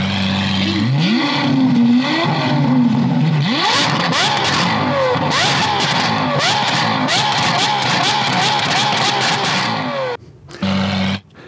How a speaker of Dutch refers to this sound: Ik, ik nog even die Lambo horen, gewoon omdat het leuk is.